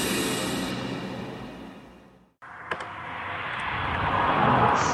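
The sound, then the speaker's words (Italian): A car passes with a broad whooshing engine roar that fades away, breaks off briefly, then swells again as another rushing pass builds loudly toward the end. “quella che avete appena sentito passare era una macchina nel salotto di Ferruccio”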